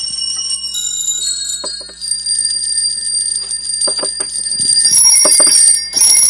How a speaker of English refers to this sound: It's a keyboard instrument that um, has copper chimes, all tuned to the same note plus octave, and in fact deliberately slightly detuned.